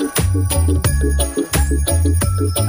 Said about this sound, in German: Und jetzt wollen wir natürlich reinhören. Wie klingt dieser Weihnachtssong für Hunde? Also Hundeohren auf. Hier ist er.